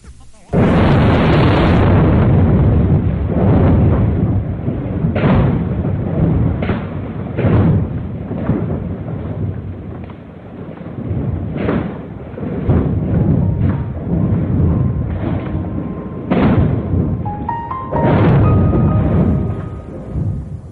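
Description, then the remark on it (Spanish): A deep, continuous rumbling roar of the earthquake that struck north-western Japan at 14:46 on 11 March 2011, loud and dense with low energy, punctuated by repeated sharp cracks and jolts that surge and fade irregularly throughout. “Eran exactamente las 14 horas 46 minutos del 11 de marzo de 2011, momento en el que la Tierra tembló de forma devastadora.”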